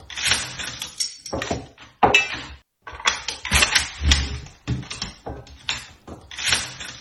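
Rapid metallic clicks, clacks and rattles of rifle parts being fitted together, in quick irregular bursts with brief pauses, close and fairly loud, no voices.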